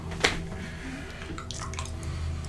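Wet, squishy mouth smacking made by a person imitating old people's mouth sounds: one sharp smack near the start, then a scattering of softer lip and tongue clicks over a low steady background, with no talking.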